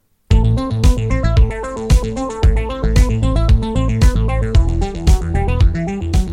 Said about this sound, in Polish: doszukałem się i tutaj proszę o utwór muzyczny.